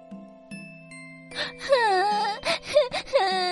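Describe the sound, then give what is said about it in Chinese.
A little bird in a tree crying: high, thin whimpering cries that waver up and down in short sobbing bursts, over a soft, steady chime-like tone that hums throughout. “树上传来小鸟的哭声。”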